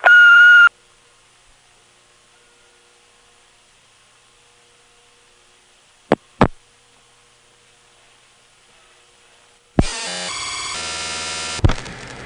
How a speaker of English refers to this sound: At the sound of the little beep, please leave your name, phone number, and message. We will return your call as soon as possible. Thank you very much. Here's the little beep.